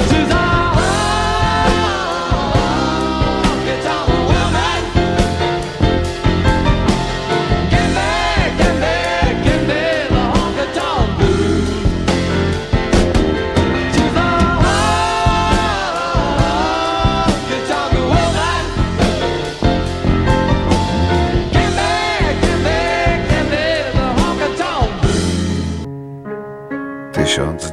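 A live concert recording of a loud rock song plays steadily, with a singing voice over driving drums, bass and guitars, filling the whole stretch before cutting off abruptly near the end.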